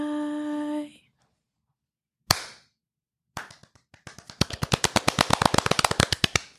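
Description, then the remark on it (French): A held musical tone fades out, then one lone clap, followed by scattered claps that settle into thin, steady, polite applause, as though only a few people are clapping. “Hey, c'est comme des applaudissements de golf.”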